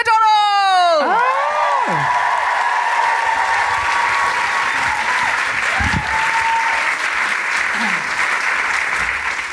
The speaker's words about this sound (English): Hello. Now, I know you've just clapped, but can I have you cheer and roar again for the trans community?